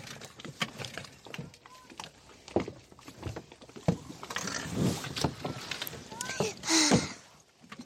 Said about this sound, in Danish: Ja, du hopper bare ombord. Okay. Så starter så, lige motoren. Så kommer du bare afsted kommer bare afsted, hvis du har lyst.